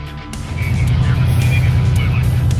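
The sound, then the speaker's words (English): A loud, steady low rumble of heavy truck engines as a Canadian convoy of trucks drives past, leaving the Flying J, continuous for the whole stretch with a faint higher whine riding over the droning motors. “Look at the trucks, people.”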